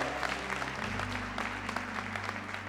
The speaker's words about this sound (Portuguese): Para isso nós já antecipadamente damos honra, glória e louvor, a começar com essas palmas que são para ti. Ser bem-vindo em nosso meio, Pai. Aleluia! Aplauda o Senhor, aplauda o Senhor, aplauda o Senhor.